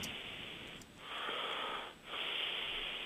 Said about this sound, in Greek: Είναι βαριά η ανάσα.